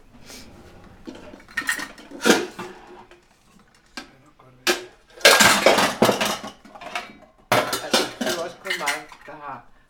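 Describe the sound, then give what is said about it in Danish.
Metal pots and pans clatter and clank in a series of sharp bangs and scrapes as another pot is taken out and cookware is shifted around, with a few quieter clinks between the louder crashes. “så tager jeg en anden gryde frem.”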